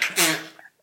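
A single loud sneeze with a sharp breathy burst and a brief voiced tail, fading quickly into near silence.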